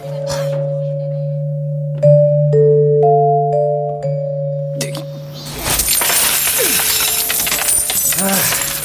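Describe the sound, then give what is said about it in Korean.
After a few seconds of steady electronic tones, a big pile of coins, a worker's whole monthly wage paid in coins by a shop owner, pours out in a loud, continuous metallic jangle that rattles on until the end. “와 사장님, 아, 웬 동전이 이렇게 많아요?”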